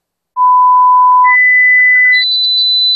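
Three loud, steady electronic beeps, each held for nearly a second, stepping upward in pitch from one to the next, with no talking.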